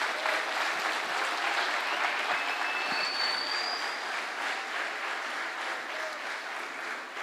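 A crowd applauds steadily and loudly throughout, giving a round of applause to Jesus, a dense wash of many hands clapping together, with no voices standing out above it.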